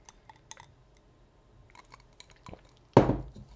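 Glasses clink together once in a toast, a sharp ringing knock near the end, preceded by a few soft clatters and taps, with no talking.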